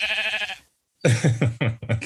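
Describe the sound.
A person mimics a sheep with a quavering bleat, then after a brief pause gives several short, wavering baa sounds in quick succession, fairly loud.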